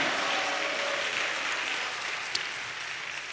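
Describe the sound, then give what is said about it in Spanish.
An audience applauds the Lord together, a steady, dense wash of clapping that holds fairly even for a few seconds, easing slightly toward the end, with no voices over it. “¿Cuántos le aplauden al Señor, hermano?”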